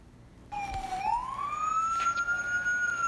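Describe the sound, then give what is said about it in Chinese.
A fire engine siren starts abruptly after a brief quiet moment, a single loud wailing tone that dips slightly and then slides steadily upward in pitch, with no voices. “是消防车叔叔。”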